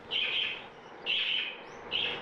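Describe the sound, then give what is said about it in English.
Small pet house birds in a home in South Australia chirp in three quick, bright bursts of twittering, fairly clear, with short pauses between them and no one talking. “We travelled to South Australia, where she now lives with her daughters and her housebirds, to listen to her perspective.”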